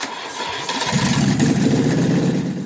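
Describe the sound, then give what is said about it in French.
The old 4-horsepower engine of a Panhard et Levassor Type A, model P2D automobile cranks and catches, then settles into a loud, steady chugging run with a rough, rattling mechanical texture. “Il a acheté une pan Levassor euh, type A, modèle P2D, à moteur d'une puissance de 4 chevaux.”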